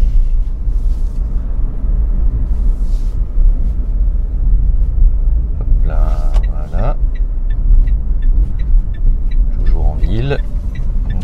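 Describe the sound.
Steady low rumble and road noise from inside an electric car with an automatic gearbox on the move, constant throughout, with a couple of brief voice sounds rising over it partway through.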